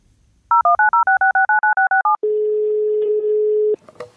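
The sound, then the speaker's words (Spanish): A quick run of about eleven telephone keypad tones, evenly spaced and loud, gives way to a steady low line tone that holds for over a second before a click cuts it off. “Me ha pedido que cuando eso pase, espere tres minutos antes de volver a marcar.”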